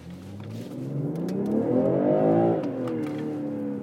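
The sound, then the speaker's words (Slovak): An electric car in eco mode gives off a smooth, layered synthetic hum that climbs steadily in pitch for a couple of seconds, then dips and settles into a steady drone. No one speaks. “Na ekorežime tiež dobrý zvuk.”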